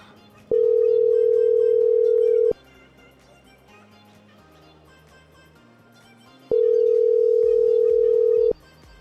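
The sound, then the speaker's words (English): A telephone ringback tone on a call: two long, steady buzzing rings about two seconds each, separated by a pause, loud over quiet background music. “Well, that one's ringing.”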